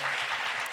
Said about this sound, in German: Habe ich auch geklatscht. Hab ich Wir auch haben geklatscht.